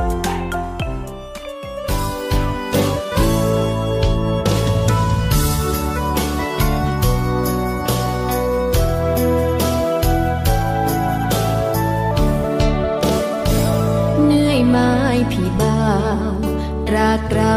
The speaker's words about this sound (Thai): ช่วงนี้เรามาพักฟังเพลงจากทางรายการแล้วกลับมาพบกันในช่วงหน้าค่ะ